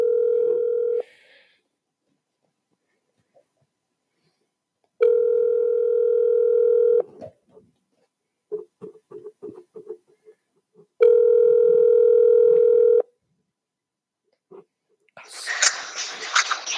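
A phone ringback tone while calling someone during a live broadcast sounds in steady two-second bursts separated by silent gaps, a flat mid-pitched hum, with faint murmuring between rings and a brief hissy rustle at the end.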